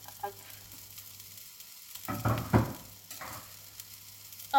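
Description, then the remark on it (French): Leeks sizzle and crackle in a small saucepan, with bursts of hissing around the middle as they're stirred, over a faint steady hum; no one speaks. “Et donc là, je mets des poireaux dans ma petite casserole.”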